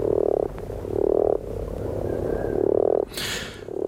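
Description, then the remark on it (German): A common frog (grass frog) croaks in a series of low, purring bursts, several in a row with short gaps between them, fairly loud with no one speaking. “Im Unterschied zur Erdkröte kommt jetzt mal das Geräusch eines Grasfrosches.”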